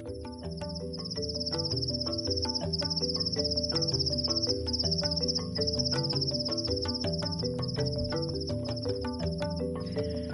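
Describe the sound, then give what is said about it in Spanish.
A cicada sings in a steady, high-pitched buzzing trill that pulses rapidly and continues throughout, layered over soft background music with no voices. “La cigarra obedece y canta una preciosa canción.”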